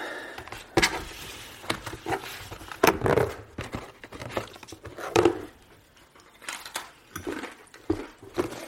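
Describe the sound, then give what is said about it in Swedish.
A wrapper crinkles and rustles in irregular bursts as a gingerbread cookie is taken, with sharp crackles and short pauses over several seconds, no voices present. “Jag ska ta en pepparkaka, ja.”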